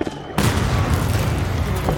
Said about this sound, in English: British artillery sounds off from across the river, and before he has time to react,